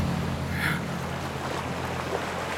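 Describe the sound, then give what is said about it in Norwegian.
A submarine moves through ocean water, a steady low churning rumble with a deep mechanical hum and a brief hissing swell of bubbles early on, continuous, with no voices. “Hva heter den båten? Nautilus!”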